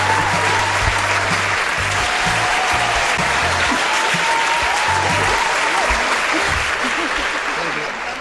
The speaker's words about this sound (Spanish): ya está, un gran aplauso, ellos se animaron.